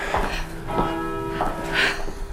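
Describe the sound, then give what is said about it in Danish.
A church bell tolls twelve o'clock, striking steady strokes about half a second apart, each leaving a sustained, ringing hum of overtones that overlaps the next stroke. No one speaks. “Nu ringer den 12.”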